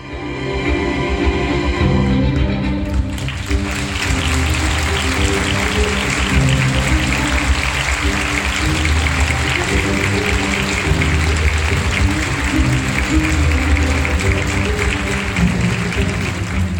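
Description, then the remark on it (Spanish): An international press audience gives restrained applause at the end of a film screening, steadily over orchestral music, the clapping starting a few seconds in and continuing at an even, moderate level while the music plays underneath. “Bueno, aplausos contenidos, pero aplausos, aplausos de la prensa internacional a la película.”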